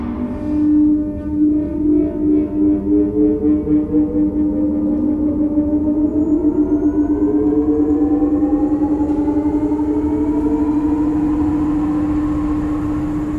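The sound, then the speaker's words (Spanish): Aircraft engines spooling up: a steady low drone with a rising whine that climbs in pitch over several seconds, pulsing at first and then settling into a loud, continuous roar. No voices. “Activando motores.”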